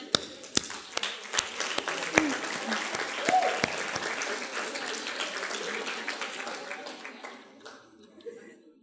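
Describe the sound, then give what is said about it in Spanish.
A church audience breaks into applause for Jesus during a sermon, a dense wash of many hands clapping with a few sharp individual claps standing out, gradually thinning and fading toward the end. “¿Por qué no le das un aplauso a Jesús?”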